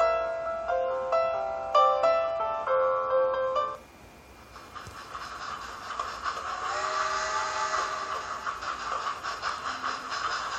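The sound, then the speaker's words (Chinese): A little steam train in a children's bedtime story, running through a big forest with white smoke puffing from its front: a bright, multi-toned whistle sounds in a few repeated bursts, then gives way to a steady hiss of steam with a quick, even chugging rhythm underneath. No one speaks. “瞧，大森林里跑来一列小火车。小火车的头上冒着阵阵白烟儿，正快乐地唱着歌。”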